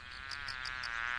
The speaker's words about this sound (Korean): 아, 이번에 파리?